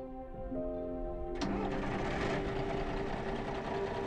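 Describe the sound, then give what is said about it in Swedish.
The engine of an old, rusty former SL (Stockholm public transport) bus whines and cranks briefly, then catches with a sudden burst and settles into a loud, steady rumbling idle. The bus was hired to carry a Stockholm floorball team and its supporters to the final in Karlstad, Värmland. “Några dagar innan finalen abonnerar Balrog gamla SL-bussar som ska transportera såväl laget som supportrarna till Värmland.”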